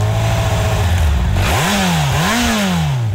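The loud engine of a 2011 Yamaha R1 Big Bang motorcycle idles with a low, uneven burble, then revs sharply twice, the pitch sweeping up and falling back with each throttle blip before settling into a lumpy idle.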